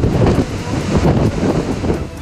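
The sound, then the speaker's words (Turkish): Heavy storm waves over 5 metres high crash and churn continuously at Zonguldak, Turkey, while strong wind reaching 90 km/h roars across the microphone, a loud, turbulent wash of surf and gusting air with no voices. “Fırtınanın etkili olduğu Zonguldak'ta dalgaların boyu 5 metreyi aştı.”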